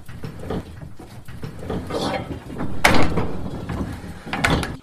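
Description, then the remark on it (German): Wooden creaks and knocks from an old wine press being turned, a series of uneven mechanical clunks with one sharper bang near the middle, with some voice murmuring underneath. “Ich kann ja auch mal drehen, dann können die Hörer auch mal. Hier dreht sich so.”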